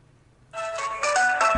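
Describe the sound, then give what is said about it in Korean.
A musical phone ringback tone, a remix, starts after a brief quiet moment as a phone call is being connected: a bright, tonal melody that plays steadily and fairly loud, with no one talking over it. “바로 지금 전화 연결 해보도록 하겠습니다.”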